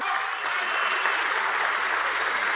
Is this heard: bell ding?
no